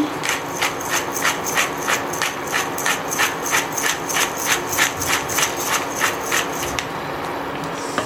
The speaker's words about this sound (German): Ein bisschen Pfeffer aus der Mühle.